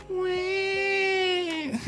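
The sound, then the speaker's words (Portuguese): A person imitates a crying baby with one loud, sustained wail lasting about a second and a half, its pitch holding steady before breaking off into a brief sputter. “Desculpa, queria só fazer um bebê chorar.”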